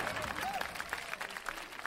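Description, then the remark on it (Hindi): A burst of audience clapping welcoming the first poet at a poetry show, dense and steady, with many hands overlapping at moderate loudness and a faint murmur of voices underneath. “तालियां”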